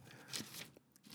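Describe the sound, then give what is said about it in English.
Soft paper rustling with a few brief crinkly bursts, like sheets of notes being shuffled and handled as someone goes through them, quiet and on its own with no talking. “And if you hear paper rustling in the background, just understand I'm going through my notes, and I'm, I'm trying to make this show coherent for the mass public.”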